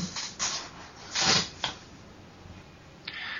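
Several scuffing footsteps at an uneven pace, as someone walks a long way off to open a door, growing slightly fainter, with a soft hiss and no talking.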